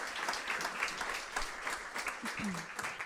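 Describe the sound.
A steady burst of applause, many hands clapping in a dense, continuous patter at even loudness throughout, with a brief voice sound near the end.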